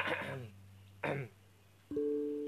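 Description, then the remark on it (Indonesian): Someone waiting in line at an ATM clears their throat twice in short, gravelly bursts separated by a brief pause, as a hint to the person ahead to hurry, then a steady, even hum begins and holds to the end. “nah, kok lama banget ya gue mulai ngedehem dehem gitu kan ngasih kode gitu biar cepat”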